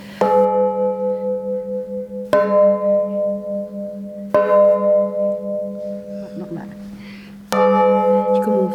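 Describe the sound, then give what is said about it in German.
Museum bells struck one after another, four sharp strikes about two seconds apart, each ringing out in a loud, sustained tone that blends into the next. “Und wenn man so durchschlägt, was im Normalfall ja nicht passiert, hört man das auch, wie sich es ändert.”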